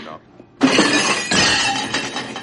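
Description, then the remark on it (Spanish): A waiter drops a tray of dishes, which crashes down with a sudden loud shattering burst, followed by a second wave of breaking crockery and clattering pieces that ring out over a couple of seconds. “Dentro de cinco segundos el camarero va a tirar una bandeja de platos.”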